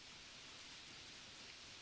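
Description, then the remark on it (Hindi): A soft, steady hiss of rain falling outside, heard from inside a room through an open window, continuous and even with no distinct drops standing out. It sounds quiet, with no voices. “और आपको बारिश की आवाज़ यहाँ भी आ रही है”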